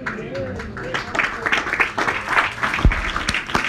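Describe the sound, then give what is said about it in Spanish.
A church crowd claps for the Lord steadily for a few seconds, a dense patter of many hands with cheers and voices mixed in, one sharp thump standing out near the end. “Del aplauso al Señor.”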